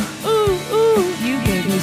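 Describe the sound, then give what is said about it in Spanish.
A person imitates an owl with a few rising-and-falling hooting calls in quick succession, voiced fairly loud, with no other talking. “Está haciendo el búho.”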